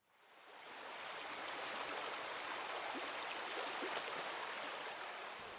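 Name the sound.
flowing river water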